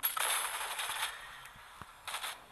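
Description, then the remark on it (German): A video game cannon fires in a loud, harsh burst of roaring blasts lasting about a second, followed by a brief pause and a second, shorter volley. No one speaks. “Setzen die Kanone und schießen!”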